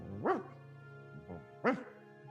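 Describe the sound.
A person imitates the sleeping dog Arfmarf growling in its sleep: two short, muffled woofing bursts with a fainter one between them, fairly quiet over a low hum.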